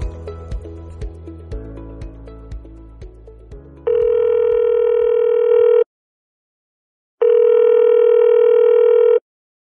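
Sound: telephone line ringing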